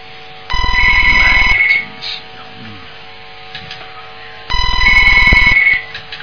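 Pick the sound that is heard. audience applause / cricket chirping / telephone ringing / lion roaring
telephone ringing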